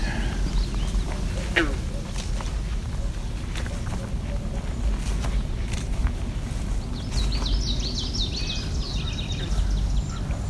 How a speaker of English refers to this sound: It's also a swamp sparrow, the more ringing sound in the background.